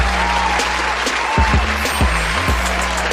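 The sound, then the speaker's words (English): A burst of crowd applause, dense steady clapping filling the whole clip at a loud level, with a low humming undertone and no voices. “Oh, fans, you honor me so greatly with the warm applause”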